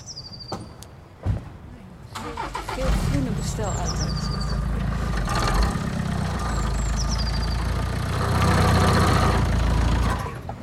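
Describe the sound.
A car engine starts up after a brief knock and runs steadily as the car is reversed, a low rumbling idle that swells slightly toward the end, with faint voices and brief high chirps in the background.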